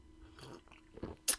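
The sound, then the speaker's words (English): Quiet mouth sounds of someone sipping coffee: soft slurps and a swallow, ending in a short, sharper sip. No one speaks. “Speaking about coffee, I'm gonna take a little sip.”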